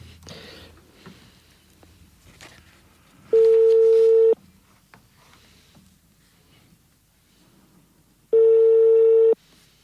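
A telephone ringback tone over a line: two loud, steady electronic tones about a second long, separated by a pause of several seconds, with faint line noise and soft clicks between them.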